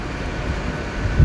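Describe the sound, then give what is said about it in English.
A low, steady rumble of a train pulling into a station, with a heavier surge of low-frequency noise near the end. No voices are heard. “Um, and my train was due at is due at 16:43, so 4:43, and it's just pulled into the station ridiculously early.”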